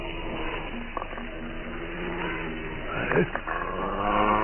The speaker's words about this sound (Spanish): Queda inmóvil. Oye perfectamente un gruñido amenazador.